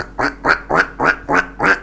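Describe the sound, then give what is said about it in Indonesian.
A voice imitates a duck, giving six rhythmic, nasal quacks in quick succession, fairly loud, with no talking. The quacks are made on an airplane to a child who would not stop crying. “tapi saya nggak mau melihat anak itu saya saya berada di sisinya saja anak itu mencari gitu ya suara apa itu kemudian saya keluarkanlah uh, apa namanya kertas saya bentuk bebek Ui, aku bebek, aku mau bermain-main.”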